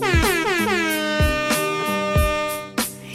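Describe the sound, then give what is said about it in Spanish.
A loud DJ air horn blares in a rapid stuttering series of blasts, about six bright, brassy honks fired off in quick succession, dominant with no talking. “Bocina, bocina, vamos ir, vamos,”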